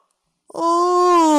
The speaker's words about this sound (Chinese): 整个晚上啊，贝尔熊都在忙着给好朋友们准备圣诞惊喜。黎明到来之前，他打了一个哈欠。